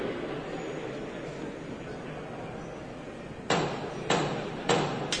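Four sharp, evenly spaced knocks from a procession float's hammer in Huelva ring out after a stretch of low, steady crowd murmur, each strike loud and crisp with a brief ringing tail.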